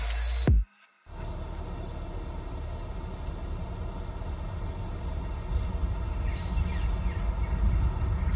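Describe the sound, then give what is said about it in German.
Crickets chirp in a steady, evenly spaced rhythm over a low outdoor rumble between fields on a summer evening in August, with a few faint bird calls drifting in toward the end; no one speaks. “Die Grillen, ich habe Grillen gehört auf jeden Fall. Mhm. Und ein paar Vögel noch.”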